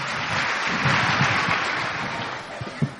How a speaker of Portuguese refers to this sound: Uma salva de palmas para a trupe. Obrigado, igreja.